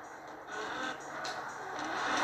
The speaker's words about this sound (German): Ähm, auf jeden Fall hört ihr wahrscheinlich gerade auch den Sound des Wagen.